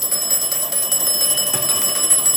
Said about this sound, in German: Aha, ich habe jetzt also ein Telefon schellen lassen und das andere hat dann, ähm, also das entgegengenommen.